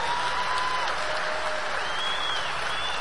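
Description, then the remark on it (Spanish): Steady audience applause fills the whole stretch, a dense wash of many hands clapping at an even loudness, with a faint tonal whine running underneath. “Por eso tus diamantes merecen un gran aplauso, el mayor de los aplausos para tus diamantes.”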